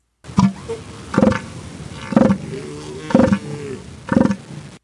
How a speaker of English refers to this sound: Isn't that crazy? That's the sound of an elephant bull seal. They are world famous at the Año Nuevo State Park in California